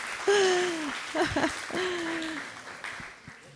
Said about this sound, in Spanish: Vamos a darle un aplauso porque lo hizo perfecto. Gracias.